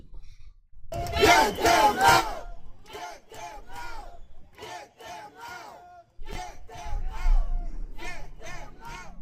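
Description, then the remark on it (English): A street crowd in New York protesting illegal immigration chants in unison, loud rhythmic bursts of many voices shouting the repeated slogan "get them out", with brief pauses between chants and a roar of voices at the start. “They are taking to the streets to protest the insane amount of illegal aliens that have flooded the streets.”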